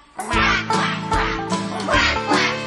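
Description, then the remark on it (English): A duck quacks loudly several times in quick succession, a run of about five or six harsh, nasal calls with no talking. “But the one little duck with the feather on her back, she led the others with a quack, quack, quack.”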